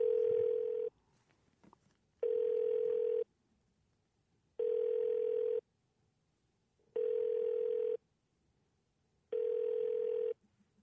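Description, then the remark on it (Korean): A telephone ringback tone repeats five times, each steady buzzing burst lasting about a second with roughly a second of silence between, with no talking, as a radio DJ phones a listener live on air. “갑자기 전화 한번 드려보겠습니다.”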